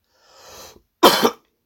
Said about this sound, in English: Oh man, if you're a doctor and you're listening, does that cough sound okay? It doesn't feel good. So it's like hot phlegm.